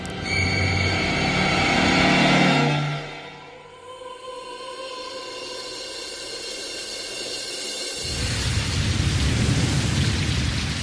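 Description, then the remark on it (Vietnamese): Steady rain hisses throughout, with a deep rolling rumble of thunder swelling in the first few seconds, then the downpour grows heavier and denser near the end. No voices. “Buổi chiều hôm ấy Trời mưa phùn giả dích mãi Kéo dài đến tối vẫn chưa ngưng”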